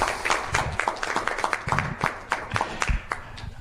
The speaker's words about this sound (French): Euh, on peut, cela mérite quelques applaudissements.